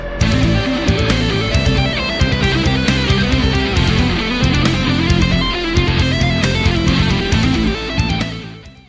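An upbeat instrumental song plays steadily at a full, even level with dense layered instruments and a driving rhythm, no voices, then tapers off slightly at the very end.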